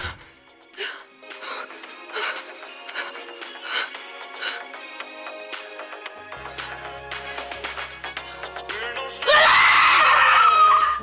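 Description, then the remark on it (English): After a stretch of intermittent tonal bursts and a low hum, a woman screams in pain, loud and strained, for about two seconds near the end as something is turned on and her whole body locks up. “and just get bricks when they turn it on, just like her whole body locking up and just like screaming.”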